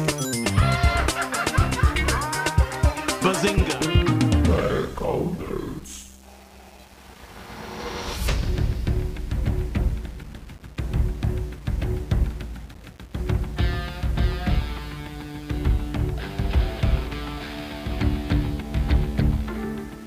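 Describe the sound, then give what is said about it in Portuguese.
A loud, busy musical intro jingle with layered tones and sound-effect bursts, briefly dropping to a quiet rumble partway through before the music surges back and plays on energetically to the end. “Roda a vinheta.”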